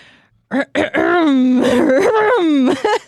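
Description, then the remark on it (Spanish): Someone imitates a rooster crowing in a strained, hoarse voice: a few short choppy bursts, then a long, raspy, wavering crow that rises and drops off, loud. “es un gallo con. es un, un gallo con COVID.”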